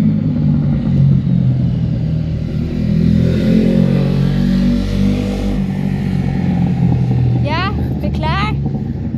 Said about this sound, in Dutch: Ik weet niet of jullie dat hoorden. We moesten even in gebarentaal. we waren echt aan het schreeuwen. ja. Maar ja. Ik wou net wat zeggen toen die motor langskwam.